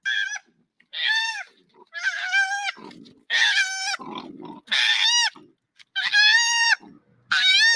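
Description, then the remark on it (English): Two koalas that were kicked out of a tree cry and scream in loud, nasal, wavering wails, one burst after another roughly every second, with brief gaps between calls and no talking. “It's uh two koalas get kicked out of a tree and cries.”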